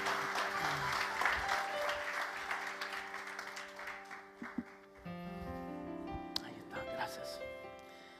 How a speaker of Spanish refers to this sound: Excelente, un fuerte aplauso a esta hermosa familia. Strong hand clap to this beautiful family.